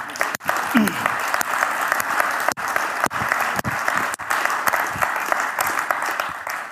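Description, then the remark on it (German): Sustained audience applause for the Royal Rangers in Ravensburg, a dense, steady wash of many hands clapping for several seconds, loud and even throughout with no voices standing out. “Den Rangers in Ravensburg einen Applaus geben.”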